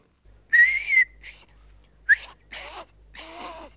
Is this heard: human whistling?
yes